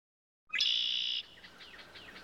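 A loud bird chirp rings out sharply for under a second as the bird is caught, followed by fainter, fluttering high chirps trailing off in quick succession.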